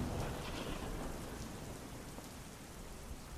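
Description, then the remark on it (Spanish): Steady rain patters against a window, a dense, continuous hiss of drops with a low rumble underneath, even throughout, with no voices. “No podía dormir, mucho menos con la lluvia que caía y golpeaba mi ventana.”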